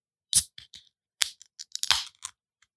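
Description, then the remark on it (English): A beverage can cracked open: a sharp metallic click and a few small tab ticks, then a louder snap with a short burst of fizzing hiss, no voices. “Do I need to crack both of ours?”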